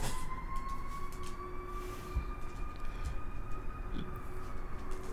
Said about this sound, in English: and the ambulance comes by. And the fight happens.